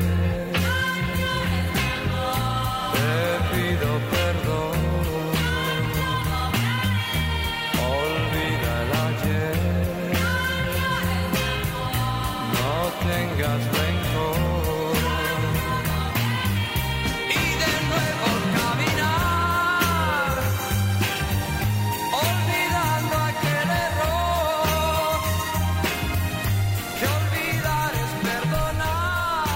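A 1960s Spanish yé-yé pop song plays loud and continuous, a sung melody riding over bouncy rhythm and bass, with a backing chorus joining in between lead lines.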